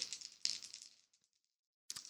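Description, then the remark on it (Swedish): Dice, one special die and two ordinary dice, are rolled for a travel skill roll. They rattle and clatter across a surface in two quick bursts of bright, rapid clicking, then settle with a few scattered taps before another short rattle of dice starts up. “Du, ja, du slår alltså mot din, e- eh, mot din färdighet resa. Ja, och då är det en plus två.”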